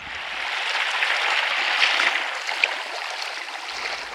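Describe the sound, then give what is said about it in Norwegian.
Steady, hissing wash of sea water in the morning at Seaforth Beach outside Cape Town, on Africa's southern tip: a soft continuous rush with small splashes rising and falling, with no voices. “Det er morgen på Afrikas sydspiss, og solstrålene farger havet i et gyllent skjær.”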